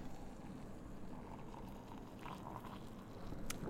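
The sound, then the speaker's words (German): Hot water pours steadily into an Aeropress coffee maker, a continuous soft gurgling rush, with a brief faint click near the end and no talking. “So, jetzt starte ich den Timer und befülle die Aeropress mit Wasser.”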